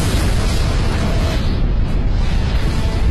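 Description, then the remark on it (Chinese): A loud, sustained explosion, apparently set off directly above a company's offices: a heavy, booming roar with deep low-end rumble that stays at a steady intensity for about three seconds, with no voices. “这爆炸发射的地点好像是我们公司正上方。”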